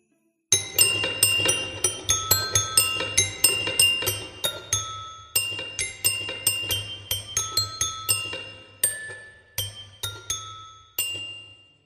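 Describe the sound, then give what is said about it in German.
A tinkling music-box melody of bright, bell-like plucked notes from a box with a metal crank turned hesitantly by hand, played at an uneven, halting pace with a very out-of-tune quality over a faint low hum, then simply stopping. “Zaghaft dreht sie sie, wobei eine unglaublich verstimmte Melodie ertönt.”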